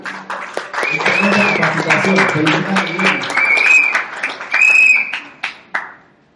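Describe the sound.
An audience of company leaders breaks into sustained applause for a speaker, mixed with whoops and cheering voices, holding steady for several seconds before thinning out into a few scattered final claps.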